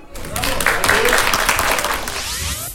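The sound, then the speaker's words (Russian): A crowd claps steadily for a few seconds, a dense, loud patter of many hands that holds its level throughout and starts to fade only at the very end. “Аплодисментами встречаем, пожалуйста.”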